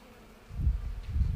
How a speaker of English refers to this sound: Can you hear the bees? Lots of bees in the lavender bush.